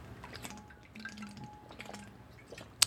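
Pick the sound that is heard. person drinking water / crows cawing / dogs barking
person drinking water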